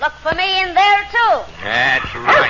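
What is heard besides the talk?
dog barking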